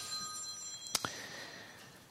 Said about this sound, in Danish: så er det telefon.